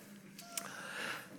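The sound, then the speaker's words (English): A single quiet, stifled sneeze: a brief sharp burst of breath followed by a soft, hissy exhale trailing off, with no talking. “Bless you”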